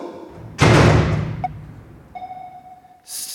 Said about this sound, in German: So, machen wir die Tür wieder zu.